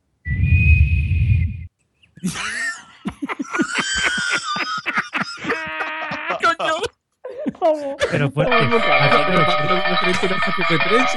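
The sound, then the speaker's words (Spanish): A loud, steady human whistle, used by a parent to call a child home from the courtyard, rings out alone for a second or two, followed by lively talking and laughter from several people. “Cuando mi hijo va al patio y lo tengo que llamar, pues silbo y él sube.”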